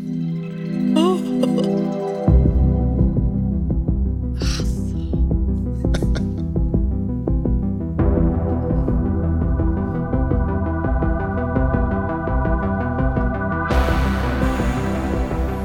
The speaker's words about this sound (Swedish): Om man inte kommer ihåg, vi kan lyssna kanske på hur uh, introt låter, det så sätter stämningen så himla snyggt. Liksom, hur, hur um, vad som gäller i, i Stranger Things. Det låter så här.